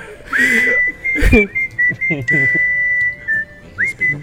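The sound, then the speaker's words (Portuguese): Someone whistles a bird-like call, a string of high, sliding chirps and warbles with brief pauses, fairly loud, while low voices murmur and a short thump sounds partway through. “Então, já que soltou o passarinho, eu queria agradecer a todo mundo.”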